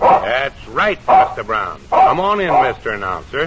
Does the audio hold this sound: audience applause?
no